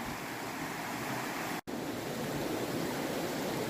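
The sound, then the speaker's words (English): A steady rush of flowing river water in North Carolina fills the whole clip, a dense, even hiss broken only by a split-second dropout midway. No one speaks. “So, anyway, I'll find a little spot on the river here and talk at you.”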